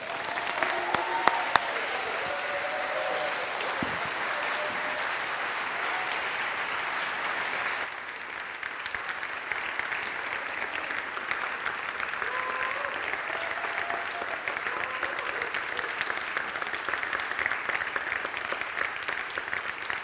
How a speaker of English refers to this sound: And um, yeah, and I would just say, would you, would you stand with me? And would you give these guys the biggest round of applause ever?